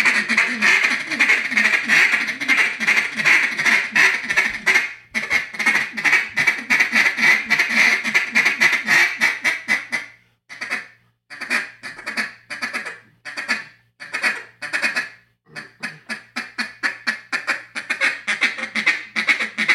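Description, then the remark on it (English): A duck call, blown in Arkansas, blasts out loud, rapid, raspy quacks in a fast continuous run, then continues in short aggressive bursts separated by brief pauses, with no talking. “Duck Calling in Arkansas”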